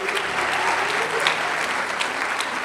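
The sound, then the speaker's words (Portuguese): An audience applauds its media team, who produce the church service: a steady, dense, even wash of many hands clapping at a consistent loudness for a few seconds, with no voices standing out. “Uma salva de palmas para o nosso pessoal da mídia aí, que faz toda essa produção de culto.”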